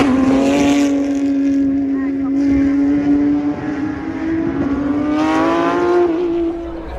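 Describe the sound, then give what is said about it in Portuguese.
A Porsche GT3 race car engine and exhaust roar loudly and steadily in the pit area of a racing circuit, its deep harmonic drone holding an even pitch before climbing slightly as it revs toward the end. “por incrível que pareça, por mais que a gente faça piada que Porsche não ronca muito, as Porsche estão roncando mais do que as Fórmula 1, dependendo do, do modelo da Porsche ali com o escape que tá, por exemplo, a GT3 tá mais absurdo que a Fórmula 1.”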